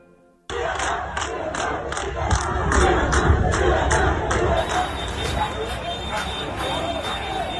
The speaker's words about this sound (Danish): Vi starter i Kubas gader blandt de 10.000 af mennesker, der råber Libertad, Libertad, som du måske kunne høre her i klippet. Altså, de vil have frihed. De protesterer mod regeringen i det, der betegnes som de største protester, man har set i landet